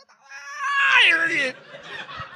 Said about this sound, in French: Eh, écoute, le singe, il est là, tu l'entends.